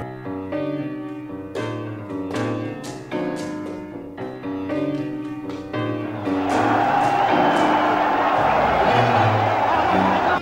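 stadium crowd cheering

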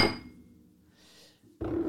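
glass clinking

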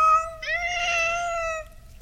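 cat meowing

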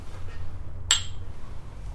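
whisky glasses clinking

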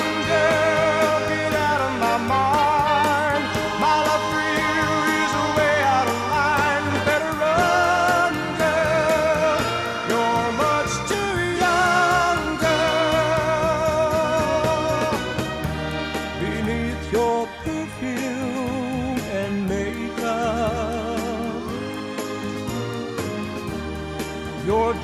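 1960s pop song playing

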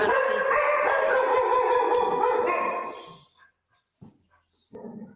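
dogs barking

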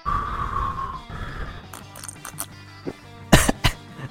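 coughing

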